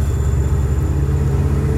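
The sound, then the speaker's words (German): A big, red-painted American truck overtakes from the left with a loud, steady low engine rumble and droning road noise, a thin high whine running through it. No one speaks. “Was ist das denn für ein abgefahren geiler LKW, der mich gerade von links herüberholt?”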